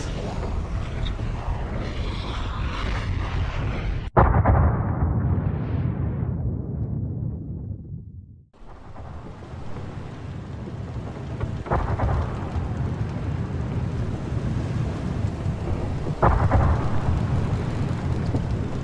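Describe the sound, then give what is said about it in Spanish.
Heavy, continuous low rumbling with sudden loud booms bursting out several times from volcanoes erupting in the distance, lighting the darkness red; the roar briefly drops away mid-way before surging back, deep throughout. “la oscuridad se interrumpe con un gran estruendo y la luz que nos alumbra es roja. La erupción de unos volcanes”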